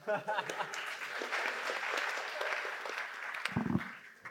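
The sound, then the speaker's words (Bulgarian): An audience at a stand-up comedy event breaks into sustained applause for the comedians, a dense wash of many hands clapping at steady volume for several seconds, with a few cheers and voices mixed in near the end. “Аплодисменти за всички тях.”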